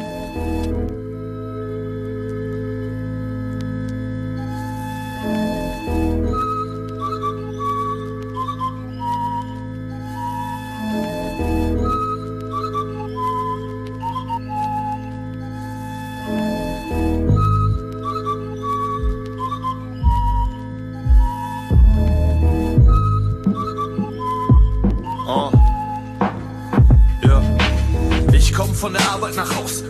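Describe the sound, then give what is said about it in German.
A boom-bap hip-hop instrumental: a steady, looping low bassline under a high, whistle-like melody, with punchy drum hits that grow busier and louder over the last several seconds. No voices. “auf jeden Fall alle reinziehen, denn es ist ein schönes, geiles, gutes Boom-Bap-Album.”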